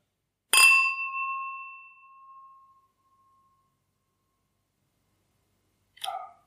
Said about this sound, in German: die Gläser, die, die klingen halt auch ewig. Klingen sehr gut.